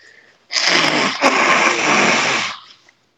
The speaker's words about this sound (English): Excuse me, guys. Let me just blow my nose here.